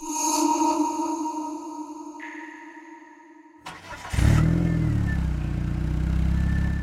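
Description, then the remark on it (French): In an underground car park, a steady mechanical hum with a tonal whine holds for a few seconds, then a sharp clunk is followed by a car engine starting up and settling into a loud, rumbling idle. “Les seuls bruits qu'on entend sont ceux des véhicules qui démarrent et de ces grandes portes en fer qui font, pour ainsi dire, un boucan d'enfer.”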